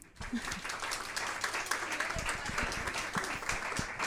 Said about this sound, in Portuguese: Peço eh, um grande agradecimento e uma grande salva de palmas para a Sara Barros Leitão.